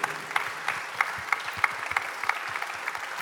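An audience claps steadily for two people who have just been introduced, a dense patter of many hands with sharper individual claps popping out roughly every third of a second. Moderately loud, with no talking over it.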